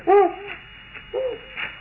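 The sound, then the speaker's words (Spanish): An owl perched on dry branches hoots twice, a strong, hollow call followed after a pause by a shorter, softer one, with no one speaking. “Y en esas ramas secas está un búho.”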